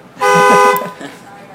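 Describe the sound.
A single loud, blaring car-alarm honk lasting just over half a second, apparently a voice imitating the alarm of a car being stolen, followed by a faint murmur of speech and room noise.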